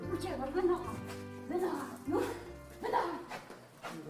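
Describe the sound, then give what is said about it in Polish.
A dog barks in several short bursts spaced about a second apart, with people's voices mixed in around the barks. “To wasz piesek?”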